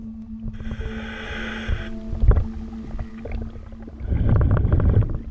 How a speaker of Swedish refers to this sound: En dykare utrustad med kamera skannar av botten. Vi hör ljudet från inspelningen. Vattnet är grumligt och brunt.